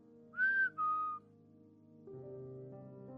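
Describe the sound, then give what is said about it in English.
Two quick whistled notes, a higher one then a slightly lower one, heard during a ghost investigation in a room with a stage, sounding clearly over a low droning background hum, followed by steady hum alone. “I was sitting there on the edge of the stage just trying to focus on the room when suddenly I heard someone whistle.”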